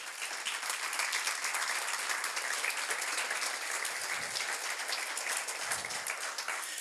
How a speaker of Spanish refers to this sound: Que alguien diga amén, por favor, y dale un aplauso al Señor Jesús.